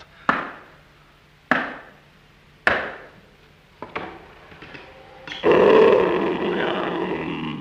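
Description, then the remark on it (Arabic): Three heavy, evenly spaced knocks on a door and a softer thud, followed by a lion's loud, rough growl that swells suddenly and rumbles on steadily to the end. No one speaks. “الله الاسد الاسد اهجم عليه يا سلامه”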